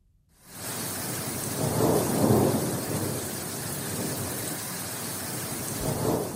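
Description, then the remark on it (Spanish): Heavy rain pours steadily while low, rolling thunder rumbles through, swelling twice near the start and building again at the end, during a thunder and lightning storm in the Basque Country (Euskadi). No voices are heard. “la descarga de rayos y truenos de las últimas horas ha dado más de un susto en nuestro país.”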